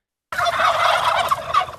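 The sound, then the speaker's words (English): A dense chorus of turkeys gobbling together on a turkey farm, a loud continuous warbling clamor from many birds that starts abruptly and carries on without pause. “In the early stages of running the turkey farm, the couple focused only on raising the birds.”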